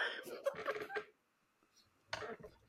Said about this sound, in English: can't stop hiccups.